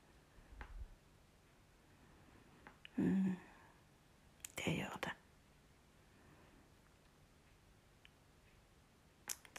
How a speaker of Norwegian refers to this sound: plasking lager veldig fin lyd. Kan du høre det samme som meg? At det plasker.